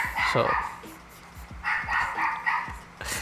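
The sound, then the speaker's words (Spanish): A dog barks in a quick series of sharp yaps: one burst at the start, a cluster of several in the middle, and another at the very end. “Saludito, saludito bien especial al perro, que es nuestro invitado del día de hoy.”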